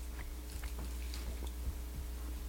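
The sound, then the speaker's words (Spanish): Soft chewing on a sticky, chewy passion-fruit candy, with irregular squishy bites and faint wet smacks over a low steady hum, and no one speaking. “Pero, Parece el dulce como el chocolate de ah. Yo no sé si se podía masticar. Claro, de poder sí se pudo.”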